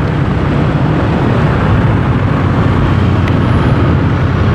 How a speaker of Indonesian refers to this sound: depan Rumah Sakit Medika Permata Hijau. Dan lalu lintas di depan terpancang ramai padat.